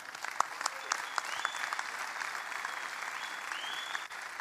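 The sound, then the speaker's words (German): Steady applause from a crowd for a team that went 37 group games unbeaten and won 16 games in a row, a dense wash of clapping that holds at an even, moderate level for several seconds, with a few scattered whistles rising above it. “Und dafür gebührt ihr einen grandiosen Applaus.”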